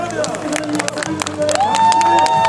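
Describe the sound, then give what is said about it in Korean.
Citizens cheer and clap as part of the Camp Market site in Incheon is returned and opened to the public, a dense wash of many voices broken by sharp hand claps, with one rising, sustained shout or whoop swelling over the din partway through. “인천 캠프마켓 부지 일부가 돌아온 순간 시민들 사이에서 환호성이 퍼져나옵니다.”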